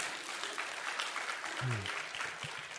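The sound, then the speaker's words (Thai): An audience at a Christian sermon claps steadily together for God, a dense wash of many hands applauding at once, with a brief low voice rising under the clapping partway through. “เอเมน สรรเสริญพระเจ้า ตบมือพระเจ้าดีไหมครับ”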